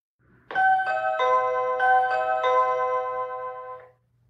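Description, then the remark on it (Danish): A doorbell-style electronic chime plays a quick run of about six ringing notes that overlap and sustain, clear, then cuts off after a few seconds, signaling that food or something else has been left outside the door to be fetched. No one speaks. “Øhm, den her klokke betyder, at der er øh, mad eller andet ude foran min dør, som jeg skal ud og hente.”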